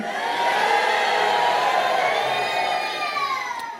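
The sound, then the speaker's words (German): A large audience shouts "nö" together in one loud, sustained call, many voices blending into a single drawn-out cry that fills the space for a few seconds before tapering off. “und wer glaubt, es geht nicht mit Karotten zu sehen wie ein Adler, der ruft jetzt nö.”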